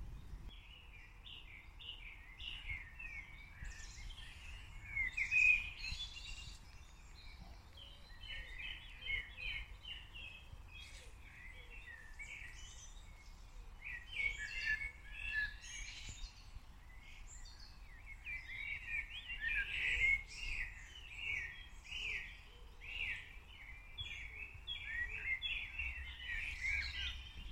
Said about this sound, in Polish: A jak rano, zanim jeszcze wstanie słońce, są takie cudowne ptaszki, świergotki poranne, które śpiewają, śpiewają, jakby chciały zawołać właśnie te wszystkie iskierki słońca.